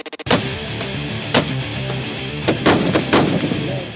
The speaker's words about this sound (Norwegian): Her hører vi han fyre av en lang serie skudd med en ekstremt kraftig rifle, en 50-kaliber som han skyter stående. Riflen er egentlig ikke bygd for det, men det er den tøffe tingen å gjøre dersom du har nok muskler.